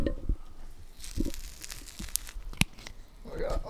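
Tearing and crinkling as sticky trap sheets are peeled open, a few separate rips and crackles with a sharp snap near the end, heard alone at moderate volume.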